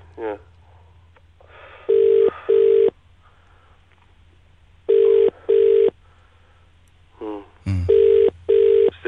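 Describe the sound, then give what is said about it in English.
A telephone ringback tone on an outgoing call repeats in paired bursts, three double-rings spaced evenly, fairly loud, with faint background murmur between them. “ringing. But he won't answer now.”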